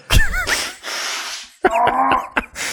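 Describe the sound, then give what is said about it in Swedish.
A sneeze building up: wavering, high-pitched voiced gasps and long hissing breaths, then a series of sharp, noisy bursts of fairly loud sneezing with no talking. “Jag kommer nysa.”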